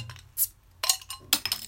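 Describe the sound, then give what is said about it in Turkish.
A small glass bottle is handled and opened, giving a few bright, ringing clinks in quick succession: one short tap, then two louder chiming knocks, with no voices. “Yok yok iyiyim ya şişe açtım.”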